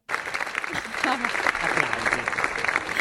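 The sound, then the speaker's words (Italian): Audience applause: dense, steady clapping that starts abruptly and holds at an even, fairly loud level for about three seconds, with faint voices murmuring underneath. “Inizia quanti applausi, meno, meno signori, meno.”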